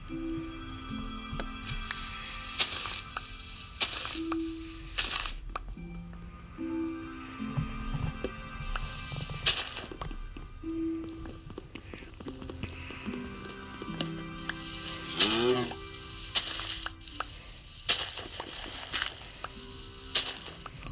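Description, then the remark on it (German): Repeated crunchy tapping of the One-Block being mined in a video game, in quick bursts over the whole stretch, with short chiming game effects and background music. No one speaks. “brauche gerade mal den One-Block ab, wie man es hören konnte.”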